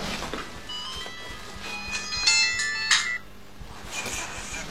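A mobile phone call's ringing tone plays as a few bright, electronic tonal bursts, the loudest two in the middle, over a steady low hum with no one speaking.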